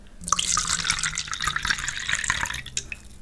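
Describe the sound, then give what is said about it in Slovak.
Wine pours steadily into a glass, a bright gurgling stream with small splashes and drips, lasting about three seconds with no talking. “Uh, chcem spraviť uh, ruch nalievania vína.”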